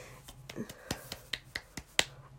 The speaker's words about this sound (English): that's clapping, but just the fact that it's his heartbeat.